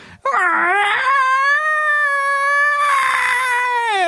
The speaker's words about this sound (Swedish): Och eh, ju mer ni pratar om detta och ni märker att ni kommer närmare och ni hör, får höra skrik. Några höga